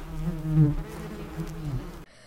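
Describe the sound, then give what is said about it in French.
A steady, droning buzz of bees, fairly loud, with a wavering hum that swells and dips for about two seconds before cutting off abruptly. No one speaks. “Après le reportage et les devinettes sur les abeilles, nous allons vous faire découvrir le métier d'apiculteur.”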